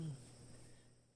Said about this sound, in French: Je ne sais pas si vous entendez les sons derrière moi, mais je suis présentement dehors. Il fait très beau. On entend euh, les grillons.